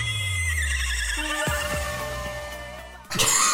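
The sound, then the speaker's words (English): A female singer performing on stage makes a loud, wavering neigh-like vocal sound in a song, half horse whinny and half donkey bray, with shaky harmonic sweeps that break off and then restart more harshly near the end. “It's kind of like a cross between the whinny of a horse and the bray of a donkey.”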